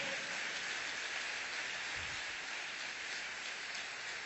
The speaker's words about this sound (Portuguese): Você pode aplaudir o Senhor por um minuto?